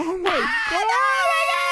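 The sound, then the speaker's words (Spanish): A single high, shrill voice of a passenger aboard a flight screams in a wavering, panicked wail as worms fall from the ceiling, sliding up and down in pitch for under two seconds, loud with no talking. “Y, los niños gritando, las señoras también gritando, los vatos así de guácala, ¿qué es esto?”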